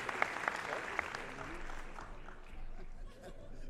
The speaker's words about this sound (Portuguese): pedir uma salva de palmas pelo talento que ele tem também.